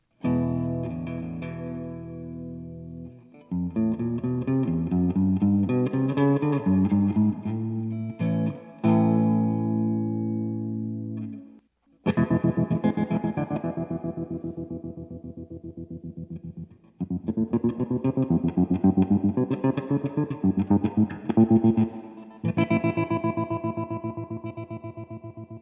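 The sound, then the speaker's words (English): An electric guitar plays a short melodic phrase and sustained chords, first with a clean tone, then repeated through an amplifier's built-in tremolo that makes the notes pulse steadily in volume. No one speaks. “That was a comparison between a clean guitar sound and the sound from an amplifier with built in tremolo.”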